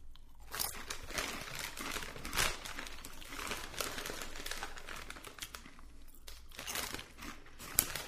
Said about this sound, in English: This bag is half full. I'm probably not going to finish it, but get a couple more crunches in there.